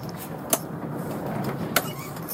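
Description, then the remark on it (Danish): A car being turned around on a road to head back the same way, heard from inside as a steady low rumble with two sharp clicks or knocks about a second apart. “Nå, men øh, jeg skal lige øh, have vendt bilen her faktisk og tilbage i samme vej.”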